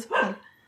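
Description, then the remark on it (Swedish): A single sharp dog bark, a short bright burst that quickly fades. No one speaks over it. “Eh, oj, det är min hund som vill ja, vuffla lite.”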